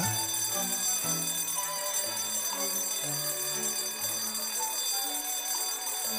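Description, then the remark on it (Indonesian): An electronic school bell chimes a steady melodic tune signalling the start of class, a run of sustained tones stepping up and down, loud and continuous with no one talking. “Ups, bel masuk sudah berbunyi.”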